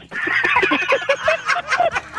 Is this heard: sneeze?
no